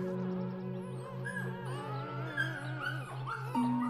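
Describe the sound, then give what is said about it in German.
A puppy with long floppy ears whimpers and yelps while repeatedly jumping up for attention, a near-continuous run of high, wavering whines with sharper yips toward the end, over a steady low pulsing hum. “Eins der Babys buhlt besonders wild um deine Aufmerksamkeit. Winselnd, jaulend und quiekend springt er immer wieder an dir hoch, während sein langer Schwanz wild hin und her peitscht.”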